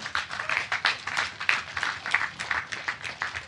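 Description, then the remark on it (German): A crowd applauds a speaker's plea during a debate, a dense patter of many hands clapping steadily for a few seconds with small swells in volume, and no voices over it. “Kurz Applaus dafür.”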